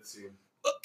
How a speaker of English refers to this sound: All right, hold on, hold on. Let me let me crack a beer real quick and just say something.